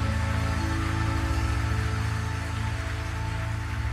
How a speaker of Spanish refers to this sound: Si le vas a dar un aplauso, dáselo fuerte, ¿no?